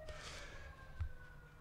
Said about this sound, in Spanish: Con la ambulancia de fondo.